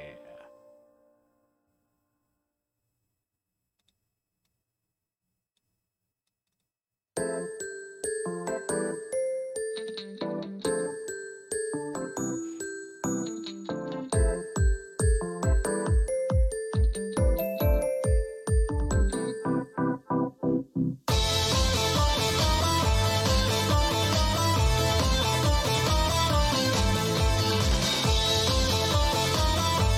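After several seconds of near-silence, an opening theme song begins with a bright, chiming melody and steady beats, building until a loud full-band section bursts in for the final stretch.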